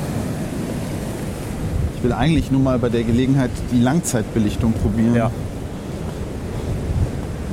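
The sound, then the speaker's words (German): Large ocean waves break and rumble in a steady wash of surf with wind buffeting the microphone, while a man speaks briefly over the roar midway through. “Hier kommen große Wellen.”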